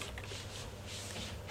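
Soft, continuous scuffing of feet sliding across a floor as two people do a moonwalk, quiet, with a brief louder scrape right at the end.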